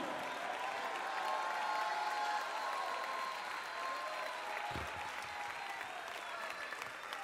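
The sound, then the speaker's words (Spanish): A church audience applauds steadily while voices shout praise to God over the clapping during a call for 30 seconds of shouted praise, a dense, sustained wash of sound with a brief low thump near the end. “Levante 30 segundos de alabanza con grito.”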